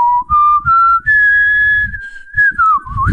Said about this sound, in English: Yeah, it's a great. Yeah, you you you had it there with your whistle.